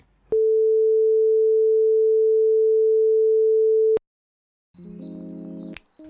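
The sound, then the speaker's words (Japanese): A steady, pure sine-wave tone holds at one pitch for almost four seconds, then cuts off abruptly; after a pause, a shorter buzzy, harmonically rich tone follows. No one speaks. “音楽の人に対して分かりやすく言うとサイン派ですみんな大好きなサイン派でございます、ねはい、ちょっとじゃあここでサイン派聞いてみましょうかはい”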